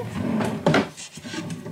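A wooden drawer holding two baskets of underpants and socks slides open with a short rumbling scrape, peaking in a brief loud thud, followed by faint rustling and light knocks of items shifting inside.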